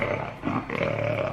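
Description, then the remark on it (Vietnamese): A tiger in a forest roars in one deep, rumbling, sustained growl that stays loud for its brief duration, with no voices present. “Đường đi thật cách trở nhưng cũng chẳng có gì xảy ra có vẻ nguy hiểm đến tính mạng hai thầy trò ngoại trừ lúc nghe tiếng cọp gầm”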